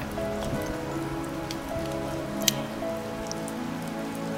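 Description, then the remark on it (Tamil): Steady rain patters down on a surface in a dense, even hiss, with one sharp drip or tap standing out midway and a faint sustained tonal hum underneath. No one speaks. “நம்ம இதை கண்டிப்பாக ஒரு நாள் ஃபீல் பண்ணியிருப்போங்க அதாவது இந்த மழை வரும்போது நம்ம நமக்கு பிடிச்சவங்களை பற்றி நம்ம நிறைய யோசிப்போம்”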